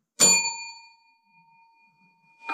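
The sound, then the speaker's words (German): A single bright desk bell ding rings out loud, its metallic tone lingering and slowly fading, with a second strike just starting at the very end. “Wir haben nämlich heute auch eine Anti-Abschweif-Klingel uns zugelegt.”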